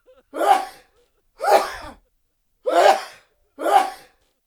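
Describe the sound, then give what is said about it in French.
Four sneezes acted out by a voice as a puppet showman who is moved and begins to sneeze, each a loud breathy burst about a second apart, with silence in between and no talking. “Mais ensuite, peu à peu, il commença à s'émouvoir lui aussi et à éternuer.”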